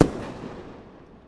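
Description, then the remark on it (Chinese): A single loud firework rocket explosion: a sharp, booming blast at the start that rolls off into a long, fading rumble with no voices. “OK，我们准备开始要放火箭炮了。”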